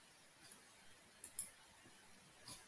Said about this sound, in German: Und jetzt, oh mein Gott, man hört die ganze Zeit dieses krampfhafte Klicken deiner Maus. Das nervt.